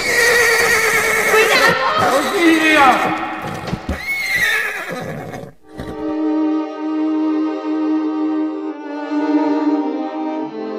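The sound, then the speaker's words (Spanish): A bolting horse whinnies loudly and repeatedly over scrambling hoofbeats for several seconds, then the commotion cuts off abruptly and steady, sustained musical tones carry on alone. “Y a los cuatro años de casado, el que la partió en dos cuando llevándola a la fiesta del trigo se desbocó el caballo.”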